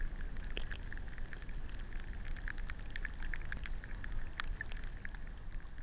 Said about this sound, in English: But then also you can hear the sound of oxygen bubbles rising to the, the surface of the water and popping, or oxygen bubbles forming from the plant life in the water.